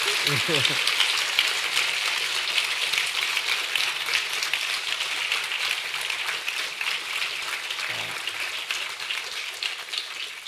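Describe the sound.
An audience breaks into sustained applause, a dense, even crackle of many hands clapping for about ten seconds. A voice murmurs briefly at the start, and a short vocal sound comes near the end.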